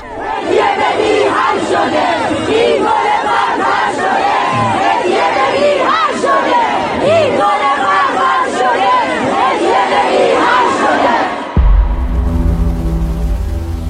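A large crowd of mourners at Behesht-e Zahra cemetery in Tehran, bidding farewell to Armita Geravand, chants and shouts together in a loud, dense roar of many voices for about eleven seconds, then the chanting cuts off abruptly and a low, steady musical drone takes over.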